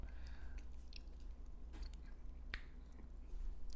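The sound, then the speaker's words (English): Quiet eating sounds from several people eating ice cream: wet smacks, soft slurps and sharp little clicks scattered irregularly over a low steady hum, with no talking. “so we're gonna do it right now. And I'm gonna keep talking while these guys munch.”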